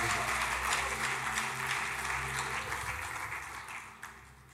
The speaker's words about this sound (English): Put your best hand clap together for God. You may be seated.